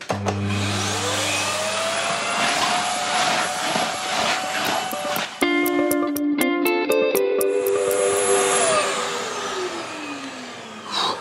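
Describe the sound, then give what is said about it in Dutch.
A vacuum cleaner runs steadily for the whole clip, a loud continuous whine with a low motor hum, its pitch rising and falling as the machine works and briefly clattering midway. “De meneer is toch al gestofzuigd.”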